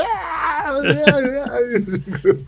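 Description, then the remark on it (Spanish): A voice acts out a scream of pain, a strained, wavering wail that rises and falls for a couple of seconds, fairly loud. “Alta actuación de grito.”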